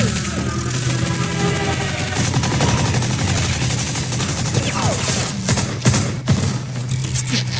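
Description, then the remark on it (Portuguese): Rapid, crackling machine gun fire from a plane escape scene in the film The Last Crusade rattles on in dense bursts over a steady, low droning hum, with a few sharper cracks standing out near the end. “Fugindo, né, de avião. vai, usa a metralhadora, pai.”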